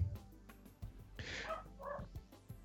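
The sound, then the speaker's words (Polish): A couple of short, muffled dog barks sound at a home, fairly quiet, with a brief pause between them. No one speaks over them. “Y, teraz y, tak, o teraz u mnie pieski szczekają.”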